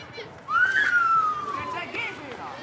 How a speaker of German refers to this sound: Hört ihr das? Kinder spielen in der November-Nachmittagsdämmerung Fußball. Gegenüber von den alten 50er Jahre Mini-Reihenhäuschen ist nämlich ein Sportplatz.